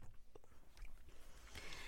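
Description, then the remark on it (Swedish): Quiet gulping as someone drinks down a drink, with a few wet swallows and mouth noises spread across a couple of seconds and no talking. “Jag kommer ju dricka den så jag tror jag är en tönt eller. Åh, jag måste dricka Okej.”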